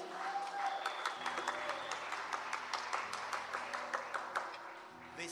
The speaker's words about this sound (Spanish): Señoras, señores, fuerte el aplauso para recibirlos a ellos.